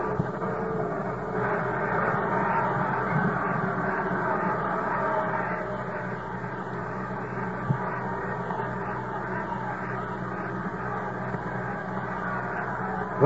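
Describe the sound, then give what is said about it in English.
A baseball crowd voices its displeasure at the call by John Kibler in a continuous, dense roar of many voices, somewhat louder for the first several seconds before settling into a steady grumbling din with no one speaking over it. “the crowd still showing their displeasure, as you can hear in the background.”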